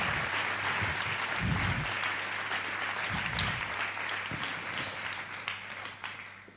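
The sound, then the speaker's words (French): Steady applause from an audience thanking a panel, a dense wash of many hands clapping at an even, sustained loudness for several seconds, with faint low murmurs underneath and a slight fade at the end. “Vous pouvez les applaudir euh, bien fort.”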